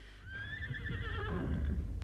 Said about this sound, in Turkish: Bakın Bakın işittiniz mi? Kişneyip duruyor hayvan Hey! Hey benim güzel gözlü atım Dur! Dur bekle beni!